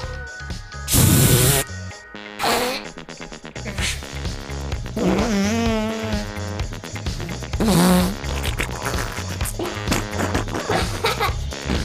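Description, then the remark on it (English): A voice makes a series of wet, buzzing raspberry fart noises with the mouth, loud, several bursts in a row with short breathy gaps, some pitched and wobbly. “it's fart noise time.”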